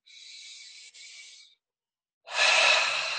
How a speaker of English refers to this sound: Good. Again. Beautiful. Belly to chest. Relax. That's four. Again. Let go of the tension. Breathing in.